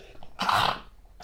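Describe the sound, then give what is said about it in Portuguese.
A single sharp sneeze bursts out, a brief explosive blast that fades quickly, followed by a faint breath. “Desculpa. Saúde.”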